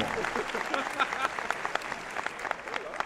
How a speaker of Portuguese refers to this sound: Uma salva de palmas pro Dudu Camargo